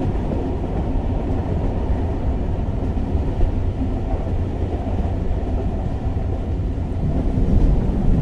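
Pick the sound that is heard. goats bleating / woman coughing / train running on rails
train running on rails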